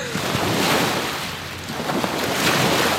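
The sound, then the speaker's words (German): Waves lap against a beach on the Elbe river in a steady, rushing wash that swells and eases in gentle surges, with a faint wind rumble underneath and no voices. “Am Elbstrand schlagen die Wellen ans Ufer.”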